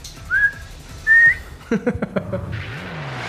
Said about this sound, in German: Abpfiff, das war's.